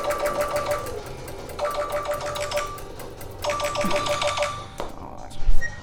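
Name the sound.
telephone ringing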